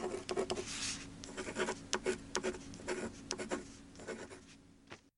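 A pencil scratches steadily across paper as a girl writes a story, with quick strokes and small taps in an uneven rhythm and a faint low hum beneath.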